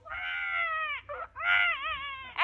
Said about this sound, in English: Well, I'm sure I heard a baby crying. Baby? Uh, no, no, no.